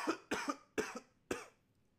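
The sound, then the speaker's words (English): A short fit of coughing: four harsh coughs in quick succession, each a sharp burst that fades quickly, with the last one standing a little apart before quiet returns. “I got a cough again. Hold on.”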